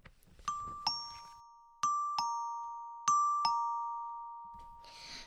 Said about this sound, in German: An einem schönen Frühlingsmorgen, die Sonne schien, die Vögel zwitscherten. Klingelte es an der Wohnungstür von Frosch mit Sturm.